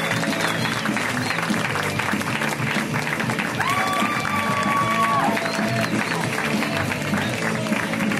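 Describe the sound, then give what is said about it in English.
An audience at a comedy show in LA gives sustained applause for comedian Karen Kilgariff, with cheering and whistles. A dense, steady roar of clapping holds at full volume throughout, with a few rising whistles cutting through the middle. “Let's hear it right now for Karen Kilgariff. Guys, give it up for Karen.”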